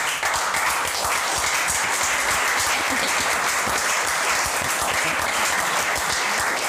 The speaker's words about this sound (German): Vielen Dank. Applaus.